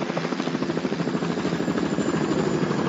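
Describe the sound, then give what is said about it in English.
A helicopter's rotor chops steadily and loudly, its rapid rhythmic thumping layered over a broad engine whine that holds constant throughout, as the helicopter is flown during a flying lesson. “I'd like to sign up for helicopter lessons.”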